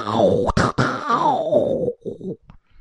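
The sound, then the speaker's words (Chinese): A voice imitates the three cannon shots at Hedong city in a told story: a drawn-out, falling vocal boom broken by two sharp bursts, followed by a few shorter choppy blasts and a final faint pop. “三声炮响，从河东城西边、东边分别杀出两支队伍”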